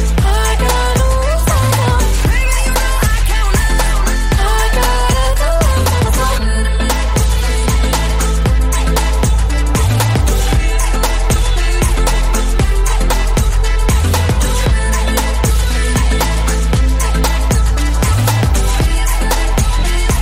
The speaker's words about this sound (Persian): یه تیک موسیقی گوش بدین ما میریم و دوباره برمیگردیم